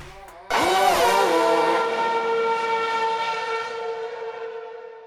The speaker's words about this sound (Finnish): joten eiköhän me tässä vapunkin kunniaksi laitetaan nyt taas moottorit käyntiin.